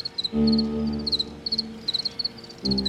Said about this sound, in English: Occasionally, the sweet chirp of what I'm pretty sure is the post mating chirp, which the male makes to keep the female close.